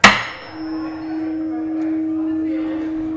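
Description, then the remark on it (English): A brass tuning fork is struck once with a sharp metallic tap, then rings on as a steady, clear low-pitched hum that sustains with little decay, heard on its own. “So this one is copper, quite low, not long duration, and here's brass.”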